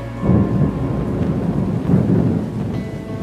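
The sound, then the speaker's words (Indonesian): Heavy winter rain pours down steadily without a break, a dense, continuous wash of sound with a deep rumbling undertone like a passing storm. No one speaks. “Musim dingin pun tiba, hujan turun tak henti-henti.”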